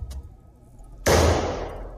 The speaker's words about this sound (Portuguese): Gente, é isso que você acompanhou aqui foram tiros. Eu vou, eu vou soltar de novo esse trecho dos tiros, ó. Isso ecoou é na cidade toda.